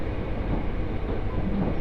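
Steady, deep rumble of a Mizushima Rinkai Railway train rolling along the rails from Kurashiki towards Mitsubishi Jikō-mae, Japan, heard from inside a carriage, with a continuous low roar and faint rhythmic clatter and no voices.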